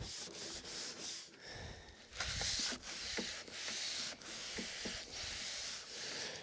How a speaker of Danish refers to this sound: Så er jeg faktisk færdig med at slibe mit bord. Jeg har fået slebet det tre gange, så nu skal jeg lige have tørret af med en våd klud, og så skal jeg give det olie.